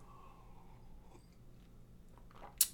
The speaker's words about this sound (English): I'm going to take a sip of my water here.